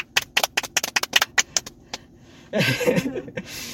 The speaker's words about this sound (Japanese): 今の拍手が、あの、3人で行われるとかっていうのは、ノース史上初めてかもしれませんね。